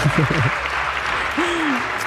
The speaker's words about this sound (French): Très bien, très bien, on peut l'applaudir. Voilà, c'est bien.